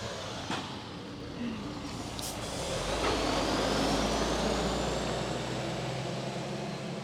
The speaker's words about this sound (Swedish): Då kommer en lastbil.